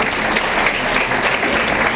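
A steady burst of audience applause for a business leader, with many hands clapping densely together at an even, fairly loud level for the full two seconds and no voices breaking through.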